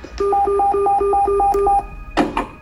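A defibrillator beeps in a rapid, steady series of short electronic tones for about a second and a half, then a brief, sharp crackling burst follows as the shock is delivered to a woman in cardiac arrest.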